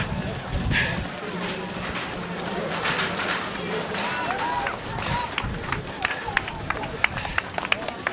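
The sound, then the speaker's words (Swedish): Quick, steady footfalls of someone running in a race in Kista at a pace of 4:40 per kilometre, with about 200 metres left to the finish, fairly loud, with an outdoor crowd murmuring and a voice talking over the pounding strides. “Nu Springer vi 4.40 fort här nere.”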